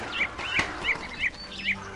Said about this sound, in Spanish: Pocos son los que en verdad han visto con sus propios ojos a Puampuan, el pájaro brujo, pero en ocasiones se escucha a lo lejos su canto inconfundible.